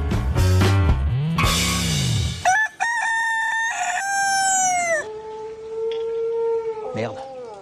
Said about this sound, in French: Kikeriki, c'est le son du coq d'après les Allemandes.